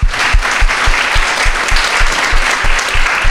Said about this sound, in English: Well, I do want to give a round of applause for our amazing panelists up here.